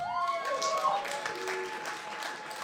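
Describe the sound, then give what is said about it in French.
A live show audience claps in a dense, steady patter for a few seconds as single women respond to a comedian's question, with a few high voices whooping and cheering over the applause. “Puis là, j'ai vu des filles applaudir, là, mais vous êtes consciente que c'est un petit peu de votre faute si vous êtes célibataire, là?”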